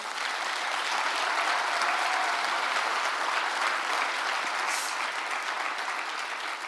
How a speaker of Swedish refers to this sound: Jag är så glad att vi har de här wow-ledarna. Kan vi inte ge alla våra wow-ledare en applåd?